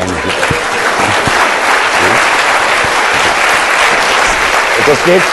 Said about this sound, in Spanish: aplauda por favor, es muy bueno.